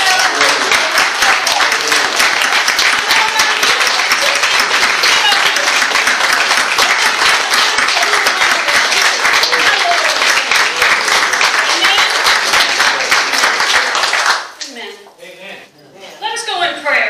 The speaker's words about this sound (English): Good morning, church family. Good morning a moment to stand where you are and let's give our Lord and Savior a hand clap of praise and a shout.